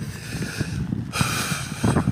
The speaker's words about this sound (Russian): Я немножко ору, у нас тут э, ветер сильный, дождь идет, э, поэтому плохо может быть слышно.